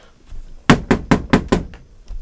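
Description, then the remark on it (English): Five quick, evenly spaced knocks on a door, sharp, rapping in a steady rhythm with no voices around them. “Can you please open the door?”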